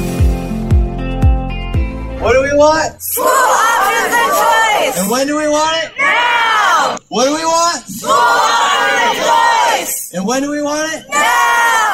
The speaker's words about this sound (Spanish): Y bueno, precisamente lo que estamos escuchando son a participantes de un evento reciente en Nevada a favor de leyes que apoyen algo que se conoce como opción escolar.